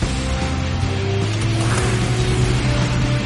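In the Super Wings cartoon, a powerful engine is switched on to drive a large electric fan fitted with Dutch windmill blades, a loud, steady mechanical drone, layered low hums and faint whirring tones holding constant throughout, with no voices.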